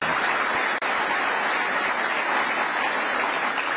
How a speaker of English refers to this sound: Oh, big round of applause